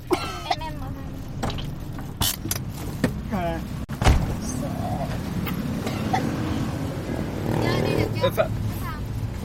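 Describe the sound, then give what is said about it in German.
A steady, low engine rumble fills the inside of a moving car carrying a little sister on her first car ride, with voices talking over it and a few brief clicks and thumps along the way. “Für Mais kleine Schwester ist es außerdem auch das erste Mal, dass sie Auto fährt.”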